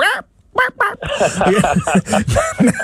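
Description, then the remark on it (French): A person imitates a clucking hen, with a quick run of loud, choppy clucks and squawks that fill nearly three seconds after a short pause. “Moi, je trouve ça fascinant comme comme ça y est, il me transforme en poule.”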